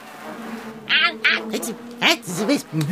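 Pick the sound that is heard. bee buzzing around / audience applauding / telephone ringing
bee buzzing around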